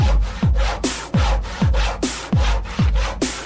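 A hand saw cutting through wood with about eight quick, steady back-and-forth strokes, each a loud rasping push. The sawing is alone, with no voices.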